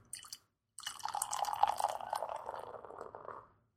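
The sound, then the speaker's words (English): The tenth beer, the last one in a bottle, cracks open with a brief hiss, then after a short pause beer glugs and splashes steadily into a glass for about three seconds before trailing off. Clear, with no talking. “On to number ten now, and this is the last one we have that's actually in a bottle. So pop that sucker.”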